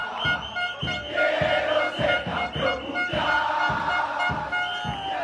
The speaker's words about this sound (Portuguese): Essa música se tornou um hino da torcida argentina na Copa do Mundo do Catar. Cantada nas ruas, no metrô e até no vestiário para comemorar as vitórias.